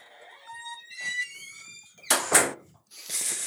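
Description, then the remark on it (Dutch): A door creaks open with a long, high, wavering squeak from its hinges, followed by two louder rushing, scraping bursts as it swings, without voices. “Hier de open deur hoor.”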